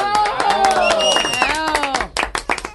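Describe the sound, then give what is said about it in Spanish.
Dense applause of many hands clapping for a former president, mixed with loud cheering and whooping voices, fading to scattered individual claps in the final second. “Lo aplauden en todo lado, expresidente.”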